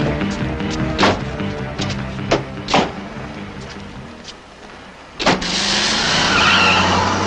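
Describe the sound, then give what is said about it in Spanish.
A car engine rumbles and revs, then the tires screech loudly as it peels out, the harsh squeal and roar sustained for the last couple of seconds. “Ay, y todos los carros queman llanta cuando se van, ¿no?”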